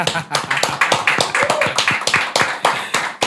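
A studio audience claps steadily for about three seconds, a loud, rapid stream of overlapping hand claps with a bright, crackly texture and no pauses.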